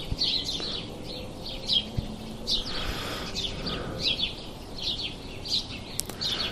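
A busy flock of house sparrows chirps continuously in a spruce tree, with many overlapping short, bright calls repeating in quick succession against a soft outdoor background.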